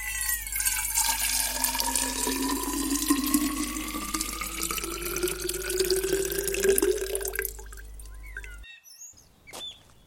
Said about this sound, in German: Barbara goss eine Kanne Wasser auf Sandras frisch bepflanztes Grab.